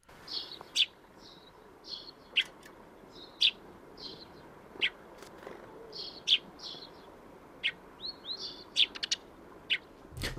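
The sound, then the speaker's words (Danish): Eurasian tree sparrows call repeatedly in short, sharp chirps scattered irregularly across the stretch, clear over a soft outdoor background hiss, with no one talking. “Det, det lyder lidt som en anden, men jeg øh, plejer måske at kunne huske, at jeg synes måske, at skovsbogen er lidt mere skænger i forhold ja. til øh, gråsbogen.”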